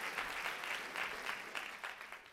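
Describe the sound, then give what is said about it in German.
A theatre audience claps steadily throughout, a dense wash of applause with shrill shrieks and cries rising through it in waves, sustained without pause. “Die Zuschauer klatschten kreischend Beifall.”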